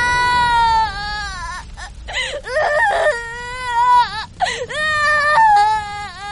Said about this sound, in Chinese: 卢宝说不出话，大哭起来。